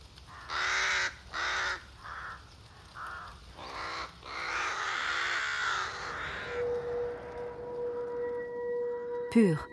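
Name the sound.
crow cawing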